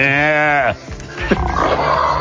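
A sheep gives one loud, wavering bleat that breaks off abruptly, followed by a rougher, noisier second cry. No voices are heard.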